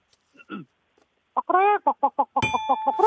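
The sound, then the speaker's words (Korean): A person imitates a hen clucking, giving a rapid series of short, pitched clucks in a steady rhythm, fairly loud, ending with a sustained higher tone. “암탉 먼저 한번 가볼게요. 암탉이요.”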